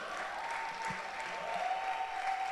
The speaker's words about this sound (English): Please put your hands together and let's welcome my word squad.